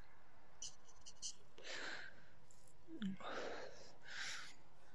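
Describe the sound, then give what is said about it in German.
Soft, breathy inhales and exhales of someone taking a couple of drags on a cigarette while pacing up and down, a few slow drags spaced out, fairly faint, with a small click partway through. “So, ja, ihr Jetzt nach meiner guten künstlerischen Pause, nachdem ich ein, zwei Züge von meiner Zigarette genommen habe und ich laufe gerade wie ein Vollidiot einfach nur auf und ab, wie beim Telefonieren.”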